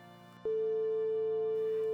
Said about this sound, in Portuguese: o telefone tocava, tocava e caía direto na secretária eletrônica.